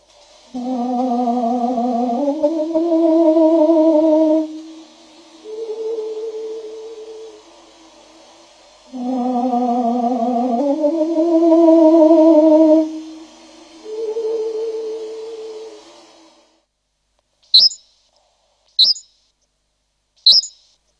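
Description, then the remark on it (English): Recorded birdsong slowed down in pitch plays as deep, drawn-out warbling phrases repeated twice, then the full-speed recording: three quick, bright chirps ring out alone in short bursts. “he records many birds and slows down their pitches to reveal what's underneath.”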